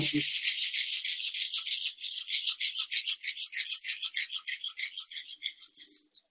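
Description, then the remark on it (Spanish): A shaman's maraca shaken steadily, its bright, hissing rattle pulsing in a fast repetitive rhythm that starts as a dense wash and settles into distinct quick shakes. “También el chamán usa mucho el tambor o las maracas.”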